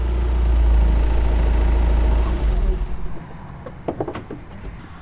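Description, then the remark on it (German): District administrator Uwe Schulze's car pulls up at an entrance on a Thursday morning. Its engine rumbles low and steady, then settles and cuts back, followed by a few sharp clicks and knocks like a door or handle being worked. “Schulzes Auto fährt an diesem Donnerstagmorgen gerade am Eingang vor.”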